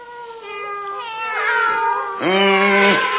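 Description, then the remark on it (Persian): Several cats meow in a string of drawn-out, wavering cries as they are thrown into a sack, growing louder, with the final meow a loud, strained wail that rises and falls. “اما بچه ها ادگار بدجنس به محض اینکه گربه ها رو دید سخت به وحشت افتاد و بلافاصله نقشه کشید و گربه ها رو داخل کیسه ای انداخت”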